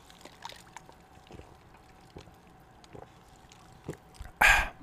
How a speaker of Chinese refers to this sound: 这个气泡水哈，没有我们德州的那个 HEB 的。的气泡水，这个是 Trader Joe's 的 Sparkling Water，所以它的气泡水就好像那个气泡的那个强度就比较没那么强，所以那个气泡水的声音可能就是没有那么厉害。